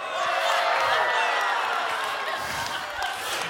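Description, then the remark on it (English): A large audience erupts in a mix of booing and cheering at a statement about liking the colors maize and blue, a loud, dense roar of many voices that holds steady for several seconds without easing. “You might be a believer if you just booed the last statement. You might be a disciple if you cheered the last statement.”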